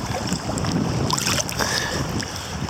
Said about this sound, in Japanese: ビタビタ聞こえると思いますけどね。はい、今、氷の上を泳いで、撮影、撮影じゃないや、録音しています。で、氷のところに来ると、あの、ちょっと音が変わるんですね。